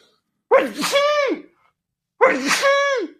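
Two loud sneezes about a second and a half apart, each a sharp burst trailing into a high, voiced, almost squealing tone, with silence around them and no talking.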